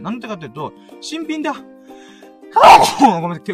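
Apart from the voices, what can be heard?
a sneeze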